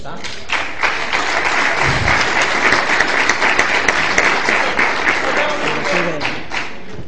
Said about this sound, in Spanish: Aplausito.